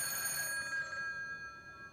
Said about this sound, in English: Elsewhere, you have allusions to Sergio Leone's Once Upon a Time in America, where a phone rings and rings and rings and rings